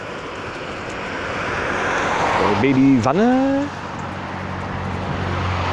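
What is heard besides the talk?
helicopter flying overhead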